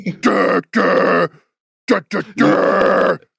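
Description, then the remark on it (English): A voice growls out a heavy, distorted deathcore guitar riff, imitating the chugging with loud, gritty bursts: two long sustained blasts, a pause, then short stabs leading into another long one. “And, and all the guitar riffs are, Durr!”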